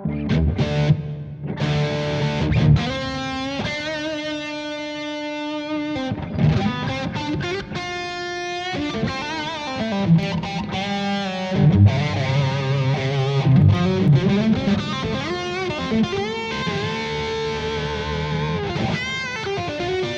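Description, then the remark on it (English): An electric guitar played through a stereo chorus effect with added reverb, ringing out sustained chords and melodic single notes for about twenty seconds, steady in volume with no talking. “Let's add a little bit of reverb to it.”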